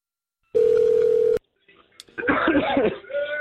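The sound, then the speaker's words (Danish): A single loud, steady telephone dialing tone from keying in a number to make a call holds for under a second and cuts off, followed after a short pause by a jumble of lively voices. “Ja, men Se, du skal bare øh, taste øh, nummeret ind.”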